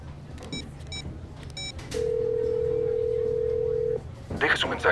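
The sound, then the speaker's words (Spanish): A few short electronic telephone ring bursts, then a steady, fairly loud voicemail beep tone held for about two seconds over a low background hum, followed by a brief rustle of noise. “después del tono.”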